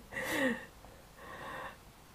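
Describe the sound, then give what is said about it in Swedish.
A cat wanting to be let in meows twice in quick succession, the first call louder with a falling pitch, the second slightly softer and steadier. Both are fairly quiet and there's no talking. “Jaha, vänta nu ska bara min, min katt vill in här bara.”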